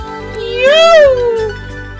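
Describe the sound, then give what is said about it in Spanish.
A person mimics a cat with one drawn-out, rising and falling meow, voiced fairly loud against a faint low hum. “Y maullaré por ti.”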